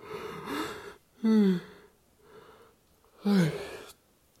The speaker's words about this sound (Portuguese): Eu acho que eu falando do bocejo, acho que eu bocejo.